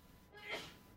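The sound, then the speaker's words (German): A single muffled sneeze from a woman in the kitchen in another room, short, rising briefly out of a quiet background with no talking. “Gesundheit.”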